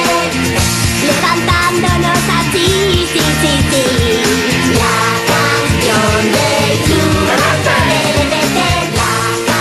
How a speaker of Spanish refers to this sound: viene de una canción que aparece en un capítulo concreto de la serie Phineas y Fer,